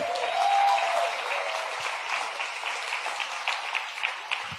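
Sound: audience clapping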